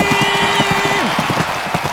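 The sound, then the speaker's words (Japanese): Rapid, rhythmic hoofbeats of galloping racehorse number 2 pound steadily as it races to the finish, with a jockey leaning forward recording the hoofbeats, and a sustained tone running underneath that drops away partway through. “早速飛び出したのは2番放送音響かなんとジョッキーは身を乗り出し足音を収録しているとてもクリアな音質安定している聞こえてくるのは勝利の足音ゴールイン”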